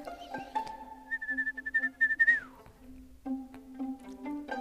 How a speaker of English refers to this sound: I think I'm gonna add my whistle in my outro because I recently just learned how to whistle. So listen.